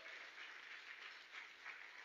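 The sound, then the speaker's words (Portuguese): A crowd applauds steadily, a dense wash of many hands clapping at once with small swells in intensity, filling the whole moment without any voices on top. “Se você crê, aplauda o Senhor Jesus.”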